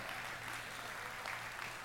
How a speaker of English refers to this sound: Uh, we are um, parents of a 20 year old as of today, which means that we have survived all the years where we had three teenagers at the same time. And I feel like you all should give us a round of applause for surviving that.